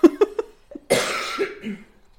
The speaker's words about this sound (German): Ja, und jetzt muss ich erstmal husten.